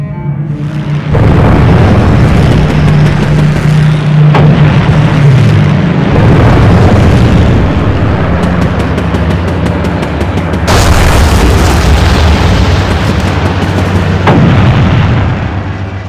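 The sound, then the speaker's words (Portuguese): Bomb explosions boom one after another over a dense, continuous roar, with sharp crackling bursts and a steady low droning hum underneath, loud throughout and with no voices: Japanese bombers attacking the US aircraft carrier Yorktown, which took direct hits from three bombs and two torpedoes. “que caiu sobre o porta-aviões Yorktown, que recebeu o impacto direto de três bombas e dois torpedos o Yorktown, que foi reparado às pressas para aquela batalha, não suportou aquele ataque”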